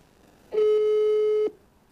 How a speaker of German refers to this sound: Es klingelt.